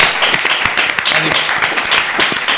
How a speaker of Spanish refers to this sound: Pues un aplauso eh. para los dos.